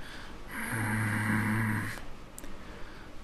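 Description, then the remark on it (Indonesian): A person imitates a low, rumbling, angry growl, one sustained guttural rasp lasting over a second, fairly loud, with no talking around it. “pas gue coba balik badan uh, kedengaran suara orang menggeram kayak kayak gini nih kayak”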